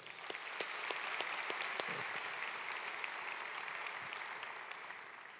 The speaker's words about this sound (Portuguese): Amém. Agora pode aplaudir.